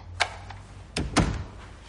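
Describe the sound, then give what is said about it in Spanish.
A door opens as Rocky enters through another door: a sharp latch click, a lighter tick, then two heavier thunks close together as it swings and settles. No voices are heard. “Rocky entra por otra puerta.”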